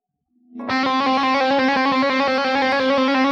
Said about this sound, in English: and you want to go as hard and fast as you can with these hammer ons.